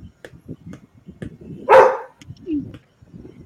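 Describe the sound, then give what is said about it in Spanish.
A dog lets out one loud, sharp bark, followed moments later by a shorter, higher yip, against a low murmur of background noise. “Mira, que se ladrando, lo voy a vender por moneda, por silver”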